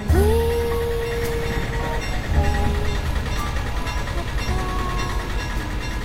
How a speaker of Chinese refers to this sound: 坐火车旅行不算是什么新鲜事儿了，但是坐高山火车还真的是人生第一次。从艳阳到暴雨，山洞接二连三，火车首尾的乘客们把欢叫声当做了旅途中的交流。